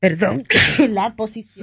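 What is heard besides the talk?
sneeze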